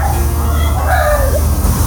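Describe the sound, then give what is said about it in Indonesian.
A chicken clucks a few times, its short rising and falling calls sitting over a steady low rumble of background noise, with no one talking. “itu kan ada ada ayam aduh romantis ya ada suara-suara hewan gitu aduh.”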